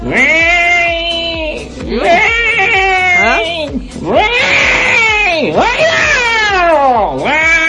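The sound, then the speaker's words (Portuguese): A voice imitates a cat, meowing loudly in a string of long, wavering, whiny meows that rise and fall, several in a row with almost no pause between them. “O gato.”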